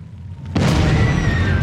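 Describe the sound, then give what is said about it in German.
A sudden loud explosive blast erupts after a quiet rumble, then a sustained roaring, crackling wall of noise continues as petrol tanks at a tank depot explode and fire rages. “Als die ersten Benzintanks explodieren”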